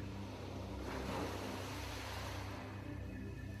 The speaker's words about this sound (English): You can hear the sound of the music and the waves crashing slowly on the shore, just being aware though just of that breathing, just of that breath in and that breath out.